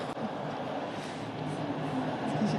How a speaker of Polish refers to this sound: Bardzo głośny i bardzo długi pociąg. A jeżeli głośny, to nie może być pendolino do Warszawy.